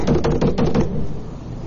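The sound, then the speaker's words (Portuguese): Five quick, evenly spaced knocks on a locked door, loud, rapping in a steady burst before stopping and leaving a short fading tail. “Pai! Abre a porta! Quando ela está trancada.”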